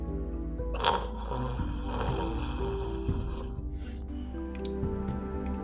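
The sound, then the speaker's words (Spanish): A man with a moustache snores in his sleep, a low, raspy rumble that carries on steadily with a brief louder snort early on; no one speaks. “Mira, güey, como que se le mueve el bigote cuando está roncando.”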